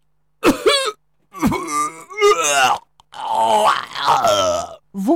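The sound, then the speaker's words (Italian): A voice imitates a wolf coughing and retching after a witch stuffs a red apple into its mouth: a run of strained, groaning heaves and gagging grunts in four or five loud bursts, the last one drawn out into a long, wailing moan. “La bestia iniziò a tossire e dopo un paio di conati ecco”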